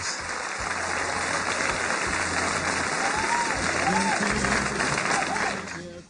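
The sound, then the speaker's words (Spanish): Loud, sustained applause from a sizable audience welcoming actress Consuelo Luzardo on the show Bla Bla Blue, dense continuous clapping lasting several seconds, with faint voices and a few whoops rising above it before it tapers off at the end. “Mejor recibamos con un fuerte aplauso a la gran actriz Consuelo Luzardo.”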